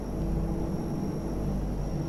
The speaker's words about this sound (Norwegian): Et norsk fly tar av fra Fornebu og glir gjennom lufta i 1989. Det hvite flyet med ei svart og blå stripe langs kroppen har kurs mot Hamburg.